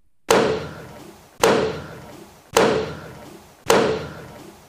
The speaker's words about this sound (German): Der Gerichtspräsident Daniel Eschbach eröffnet jeden Verhandlungstag mit vier Schlägen mit dem Hammer auf den Richterpult.